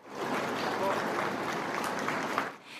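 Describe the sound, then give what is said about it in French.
Sustained applause from a sizable crowd lining the roads as a hearse travels through the Scottish countryside toward Edinburgh during national mourning, a dense steady patter of clapping that holds for a few seconds before tapering off, with some voices mixed in beneath it. “Des applaudissements aux larmes.”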